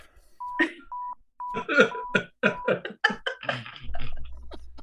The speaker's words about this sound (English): Can you beep that? Can you beep that?